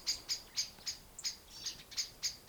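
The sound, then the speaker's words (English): High, thin bird chirps repeat in a steady rhythm, about four per second, fairly faint, outdoors, with no voices present. “I hope me and these noisy birds have brought something positive to your day.”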